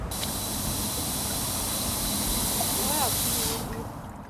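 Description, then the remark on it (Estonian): A modern mist fountain on a town's central square sprays vapor into the air that the wind spreads, with a steady, loud rushing hiss that continues for several seconds and then tapers off, with faint voices in the background. “see udupurskkaev paiskab õhku auru mille tuul laiali viib ja tekitab vaatajates elevust.”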